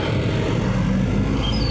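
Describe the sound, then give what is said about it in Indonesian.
A car rumbles past, a steady low engine and road noise holding at an even loudness throughout, with no voices over it. “Oh, mobil.”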